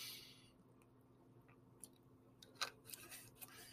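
Quiet sips of water followed by a swallow, heard as a few small wet clicks and gulps against a faint background hum, with no talking.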